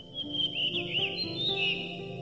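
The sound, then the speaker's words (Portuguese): A rufous-tailed rock thrush sings a continuous, fluid warbling trill of rising and falling whistled notes, clear over a low steady background hum, with no one talking, among granite piles in Serra da Estrela Natural Park. “O protagonista da nossa aventura selvagem de hoje chama-se Melro das Rochas.”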